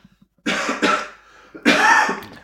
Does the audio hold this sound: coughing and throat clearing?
yes